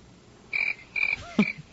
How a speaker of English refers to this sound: No, it's crickets. Oh, boy. Thank you for calling in, crickets.